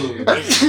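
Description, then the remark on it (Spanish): A single sneeze, a quick breathy catch followed by a sharp, hissing burst of air, loud and unaccompanied by speech. “¡Salud! Gracias.”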